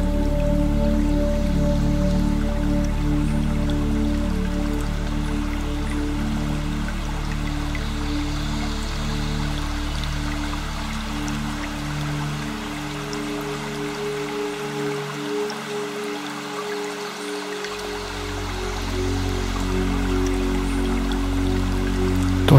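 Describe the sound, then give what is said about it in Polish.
A small stream warmed by the sun's rays flows gently and steadily, its soft continuous babbling and trickling filling the whole stretch at an even, moderate level with no voices. “Rozpocznij połączenie z dźwiękiem delikatnie płynącej wody.”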